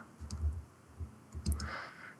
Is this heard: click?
yes